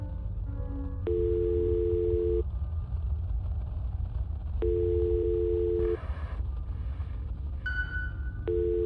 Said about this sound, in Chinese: 我拨通了家里的电话